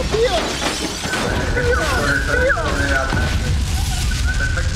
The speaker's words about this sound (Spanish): de sonido de explosiones.